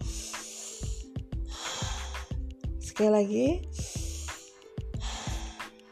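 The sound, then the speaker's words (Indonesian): Several loud, airy deep breaths, drawn in and pushed out in a slow repeating rhythm as everyone takes a deep breath before a practicum class begins, with a short spoken phrase breaking in midway. “sebelumnya sebelum kita mulai, mari kita semuanya tarik nafas dalam-dalam dulu.”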